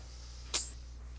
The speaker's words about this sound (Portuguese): tá alguém cortando unha, né? Eu. Ah, o som é bem conhecido. Tra! Tra! cortando garra.